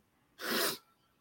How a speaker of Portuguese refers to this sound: é, licença, hein? Saúde, saúde, saúde. Repressão do espirro, é, não deu para reprimir.